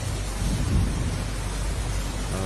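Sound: heavy rain with thunder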